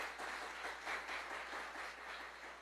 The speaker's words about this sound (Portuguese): Coloque Deus no lugar que é dele. Amém? Pode aplaudir a Ele.